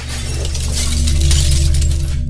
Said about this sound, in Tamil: என்னுடைய அந்த அறையில் இருந்த ஒருத்தர் என்ன பண்ணார் தெரியாதனமாக ஒரு பொருளை போட்டு உடச்சிட்டாரு